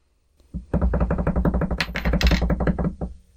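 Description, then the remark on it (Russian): A quick drum roll tapped out by hand before a coin toss result is revealed: a steady, rapid run of about two dozen dull knocks lasting a couple of seconds, fairly loud, with no talking over it. “Ну что, барабанная дробь?”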